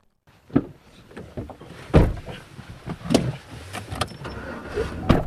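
Inside a farm truck, a door thuds and rattles and a window cranks, giving several sharp clunks spaced a second or so apart over a low rumbling background. No one speaks.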